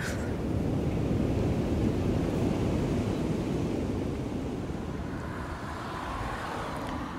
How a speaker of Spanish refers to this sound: Bueno, esto es otra cosa. Aquí sopla un poco de fresco en una marquesina en la marina hay un montón de restaurantes, de veleros atracados